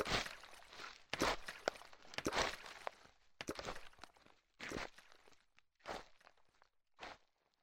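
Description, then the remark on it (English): Steady footsteps crunch along at a walking pace on the West Island Way trail on the Isle of Bute, with water sloshing back and forth in a water bladder stowed in a backpack, fairly quiet, about a dozen steps with no talking. “I can hear the water glug back and forth as I take one step and then another.”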